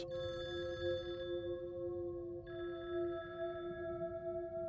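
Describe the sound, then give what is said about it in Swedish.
A phone rings with a steady electronic tone, sustained and unbroken for several seconds over a low background rumble, as police call a home in Skärholmen to give a death notice. No one speaks. “När polisen ringer och meddelar att Tony är död.”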